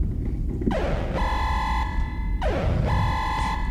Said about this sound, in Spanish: ¿Computadora, ¿esa es nuestra alarma para cerrar una compuerta? Sí. Cerrando. Suena muy amenazante.